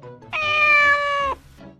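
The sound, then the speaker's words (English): A single pet cat meows, fairly loud, drawn out for about a second with a steady, slightly falling pitch, standing alone without any talking around it. “His pet is a cat.”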